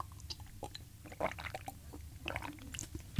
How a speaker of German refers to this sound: Das habe ich ein bisschen extra laut geschluckt. Aber schlucke ich laut? Nein.